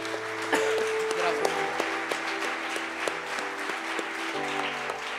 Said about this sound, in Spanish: Demos un aplauso al Señor, por favor.